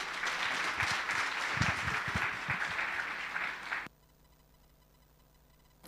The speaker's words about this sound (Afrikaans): Geef hom 'n lekker hande klap toe.